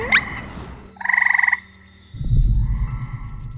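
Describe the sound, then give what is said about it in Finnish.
Frogs croak: a quick rising chirp, then a fast buzzy trill of about a dozen pulses, followed by lower, rougher croaking from several frogs. “No, nukkuuko sammakot lätäkössä päiväunia?”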